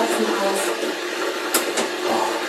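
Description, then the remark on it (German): A steady, loud rushing hiss of an electric kettle coming to the boil, with a couple of brief brighter bursts partway through and no voices. “Oh, Wasserkocher aus, sehr gut.”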